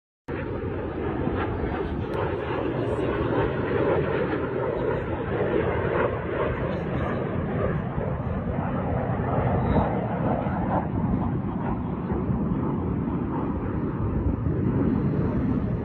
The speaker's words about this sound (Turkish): Değerli dostlar izlemiş olduğumuz video Sirte'de çekildi. Sirte'de görülen MiG-29 Rus uçaklarına ait bir videoydu. Sirte civarlarında daha önce hiç böyle gezmiyorlardı. İki tane Su-29 uçağı çok rahat bir şekilde Sirte semalarında uçuş gösterdi.